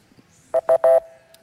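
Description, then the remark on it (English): A Jeopardy quiz show buzzer sounds three quick times, short buzzy electronic tones with the last one held a little longer, loud with no talking. “Okay, well, there was the uh, Jeopardy buzzer, and uh, but I did hear actually.”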